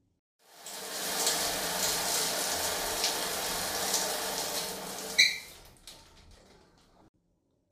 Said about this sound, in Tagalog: Pasensya na, naliligo pa ako. Lagi kasi akong nasa shower kapag nakikinig ng episodes ninyo.